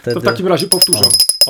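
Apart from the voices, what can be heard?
bell ringing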